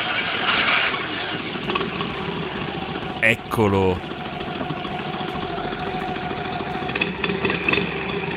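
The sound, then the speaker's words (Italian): A vintage small car, a sport version with an air-cooled two-cylinder 500 cc engine, idles with a steady, throbbing low rumble throughout, while a man briefly says a word partway through over the continuous mechanical hum. “Questo è il magico suono della vera potenza.”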